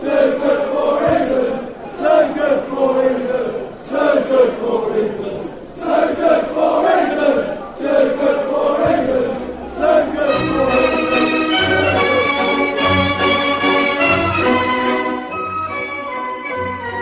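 Football supporters chant loudly in a stadium, massed voices rising in short repeated bursts before settling into a sustained, steadier sung melody from the crowd.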